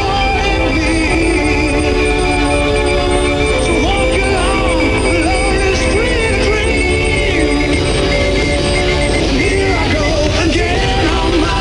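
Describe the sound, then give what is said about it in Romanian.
A shortwave radio broadcast buried under jamming, with frequency interference from radio waves reflecting off the ionosphere: a steady, loud wash of noise and warbling tones with faint voice-like sounds drifting through, continuous for the whole stretch. “Nu, era pe unde scurte sunt. Mm, eu zic că erau unde, bruiate.”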